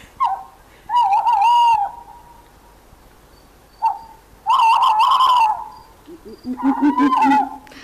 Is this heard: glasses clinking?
no